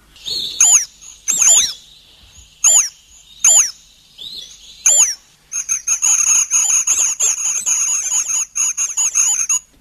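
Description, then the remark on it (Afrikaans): A waxbill, the favourite host whose nests a parasitic bird lays its eggs in, calls: about six separate high, squeaky chirps, then a rapid, continuous twittering chatter of thin high notes that runs to the end, with no talking. “Nou, ons moet onthou dat hulle is parasities en hulle parasiteer gewoonlik hulle gunsteling nes om te parasiteer is die van die swie wat so klink.”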